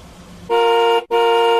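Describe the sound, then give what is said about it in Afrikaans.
A loud taxi horn honks twice in quick succession, two sustained blasts with a brief gap between them, following a low rumble of the taxi's idling engine. “dit was die taxi se toeter.”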